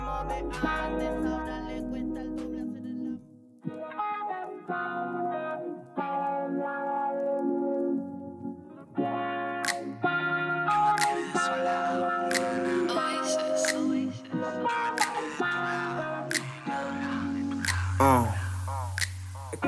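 A song plays with processed, distorted instruments and echoing effects, steady and fairly loud throughout, with a heavy low bass and bright high-end accents stacking up in a dense, layered mix.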